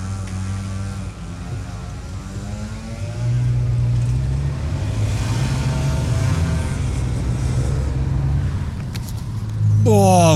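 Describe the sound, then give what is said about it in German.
A motor scooter's small engine drones loudly, its buzzing pitch shifting as it revs, growing louder partway through and surging again at the very end. “Alter Finne, machen Lärm wie die Sau, stinken wie die Hölle und fahren 12 km/h.”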